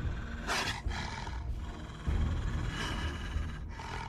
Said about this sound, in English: and then you hear another growling coming from the other side. And from those bushes, you see a dire wolf.